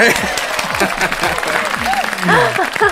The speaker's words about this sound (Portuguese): Ai, eu queria tanto colocar aqueles aplausos, aqueles aplausos, sabe, por esse momento. Quer que eu coloque? Eu coloco na sonoplastia.